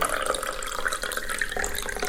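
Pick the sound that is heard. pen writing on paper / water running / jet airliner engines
water running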